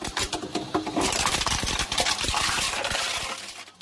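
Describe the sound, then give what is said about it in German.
A bottle return machine whirs steadily while a plastic bottle thrown into its slot is crushed inside it. It gives off a dense run of ratcheting clicks, crunches and crumpling for several seconds, fairly loud, easing off at the end. “Da gibt es so ein Ratschen und so ein Knirschen und so ein Knüllen.”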